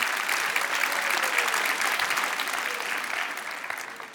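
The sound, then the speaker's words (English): A large audience claps steadily for about four seconds, a dense, even wash of applause that holds its strength before easing slightly at the end, with no voices on top. “How about a hand”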